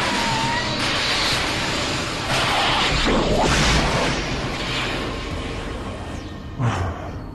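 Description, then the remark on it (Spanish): A loud, roaring explosion fills the scene, with a sustained rumble, crackling debris and a sharper burst midway, dense, with no one speaking. “Normalmente diría que eso está cool, pero si estoy en medio de una explosión”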